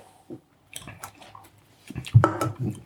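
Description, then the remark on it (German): Wet mouth sounds of someone taking a sip and swallowing, with small liquid slurps and clicks building toward the end. No one speaks. “Ich musste mal einen Schluck nehmen.”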